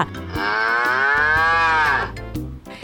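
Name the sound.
cow mooing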